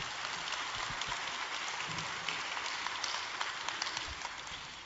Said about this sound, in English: They worked hard. Absolutely. Um, one, you can clap for that. Absolutely.